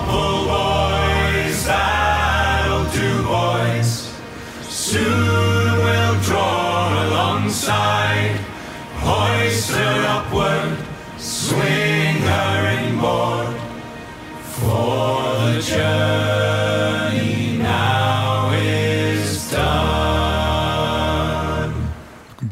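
A vocal group sings a sea shanty in full harmony, deep bass voices anchoring the chorus, with sharp rhythmic beats marking a steady pulse and brief breaths between phrases.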